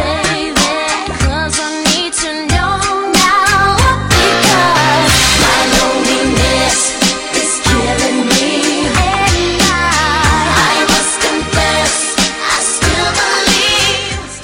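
A 1990s pop song plays loud and steady for the whole stretch, with punchy drums, bright synth layers and a sung melody riding on top, no talking over it.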